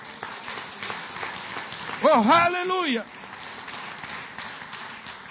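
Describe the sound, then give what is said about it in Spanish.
Steady, dense applause from an audience fills the whole stretch, a continuous crackle of many hands, while one voice briefly calls out over it midway. “Denle un aplauso a Dios por eso.”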